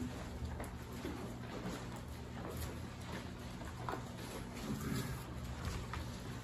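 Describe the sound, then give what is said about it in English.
Soft, crisp rustles of thin Bible pages being turned to Genesis 3:15, several brief papery flicks spread over a few seconds, quiet, above a steady low hum with no talking. “Love the sound of the page turning”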